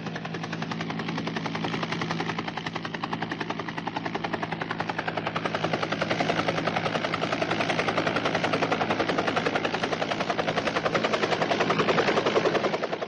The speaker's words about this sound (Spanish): El técnico de Codesur, geólogo, que nos acompañó durante nuestra exploración, especialista también en helicópteros, hacía las señales precisas para que la nave se posara en el sitio idóneo que nos permitiera a nosotros introducirnos en su interior.